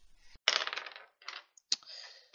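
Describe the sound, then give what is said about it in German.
Dice clatter across a hard tabletop in a rattling burst as a player rolls for damage in a game, followed by a few lighter knocks and a final click as they settle. No voices. “du würfelst Schaden aus.”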